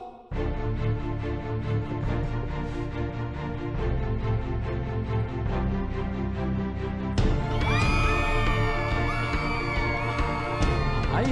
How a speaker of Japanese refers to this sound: えーいきなりの叫び声に驚いた方がたくさんいらっしゃるのではないかと思います